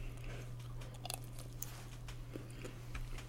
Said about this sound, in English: I'm still chewing food.